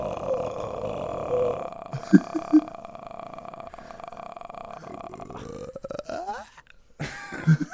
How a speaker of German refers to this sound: Du kannst das nicht richtig. Bei dir klingt es, als würdest du rülpsen.